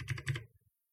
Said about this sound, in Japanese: あのメカニカルキーボードって言って、あの、まあ、いつも、この放送とかで音入ってるかわかると思うんですけど、うるさいんですよね、音が。こういう風に。